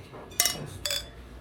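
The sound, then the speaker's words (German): Two bright glass clinks ring out about half a second apart, crisp, each with a short shimmering ring, as glasses touch in a toast against a quiet background. “Prost die Dame, Prost die ganz vielen Herren.”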